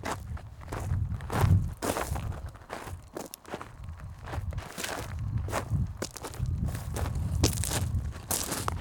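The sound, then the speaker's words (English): Footsteps climbing up a rocky face in the desert toward Jukebox Cave, a steady series of crunching, scraping steps with gritty bursts of loose stone, moderately loud and continuous, with no talking. “start climbing up into the rocky face.”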